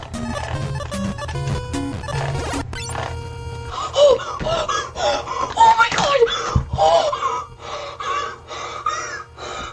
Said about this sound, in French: complètement euh, essoufflé.